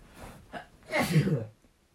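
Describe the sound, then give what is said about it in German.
A single forceful sneeze: a short breathy intake builds up, then a loud burst that trails off over about half a second, with no talking around it. “Gesundheit, Herr.”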